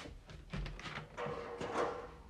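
A door at home is opened: a few soft knocks and clicks from the handle and latch, with rustling movement in between.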